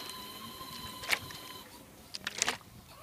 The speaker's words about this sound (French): Euh, C'était la tondeuse de monastère.